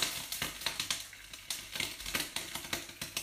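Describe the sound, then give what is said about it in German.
Water sizzling in a hot pan on a stove hotplate, giving off a lot of steam, a steady hiss broken by dense, irregular crackles and sharp pops, fairly quiet overall, with no voices. “Oh mein Gott, wie viel Dampf kommt da wieder raus. kann ich die Pfanne nochmal, also die Platte nochmal abstellen.”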